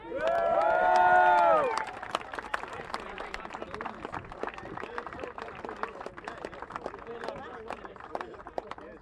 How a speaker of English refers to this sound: Get a good round of applause there.